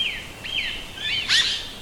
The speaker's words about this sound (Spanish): El poeta ladrón alza la vista hacia la espesura de la copa de un árbol y puede ver a unas aves de dulce voz haciendo el amor. ¡Qué hermosas aves! qué hermosamente revolotean.